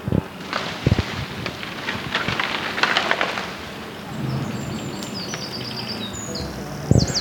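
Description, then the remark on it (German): A tree falls in the Black Forest: a rush of cracking and snapping, a low rumbling crash, then quiet with birds chirping high overhead before a final heavy thump. No voices. “So, Baum fällt, glaube ich.”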